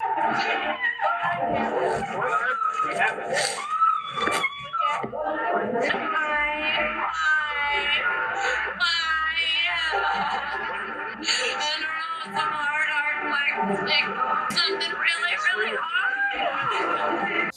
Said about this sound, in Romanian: S-au auzit uh, aceste strigăte din partea lui Nancy Kerrigan.